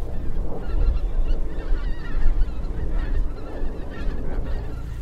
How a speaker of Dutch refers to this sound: Allemaal mooi de kopjes omhoog. Ja, ik kan wel zeggen, voor dwerggans, je ziet al die koolganzen staan.